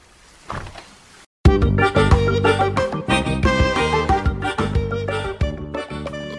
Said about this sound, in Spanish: Pero esto solo es un bar de mala muerte. La música me suena de algo, pero ahora mismo no sé de qué, no sé.